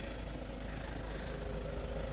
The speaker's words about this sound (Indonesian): Entah ini mobil lewat dilut ya. Rada mangkel.